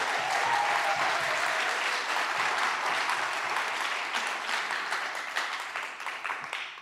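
A crowd claps steadily for several seconds, a dense, bright patter of many hands at a fairly even loudness that thins slightly toward the end, with no voices over it.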